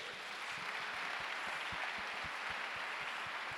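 An audience claps for the Lord steadily for several seconds, a dense crackling wash of many hands with sharper individual claps popping through at a brisk, uneven rhythm, with no voices over it.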